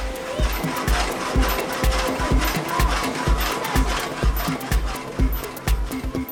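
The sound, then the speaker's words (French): The gear mechanism of a water-powered saw, driven by a water wheel and working the saw's movement, runs with a steady, rhythmic clanking, heavy low thumps about twice a second mixed with sharp metallic clicks and a continuous mechanical rumble. “Cette pièce métallique en forme de roue plus petite, ça c'est l'engrenage. Ça actionne après le mouvement de la scie.”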